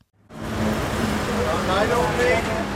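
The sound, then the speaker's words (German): Steady road traffic at the Selb border crossing in Upper Franconia, Bavaria, Germany, as cars drive in from the Czech Republic past federal police checks. After a brief quiet start, a low engine hum and rushing tyre noise come from passing cars, with faint voices mixed into the background. “Bundespolizisten kontrollieren zwar nicht jedes Auto, das von Tschechien nach Bayern fährt, auch um Staus zu vermeiden, aber die Beamten können nun flexibel sämtliche Maßnahmen einsetzen”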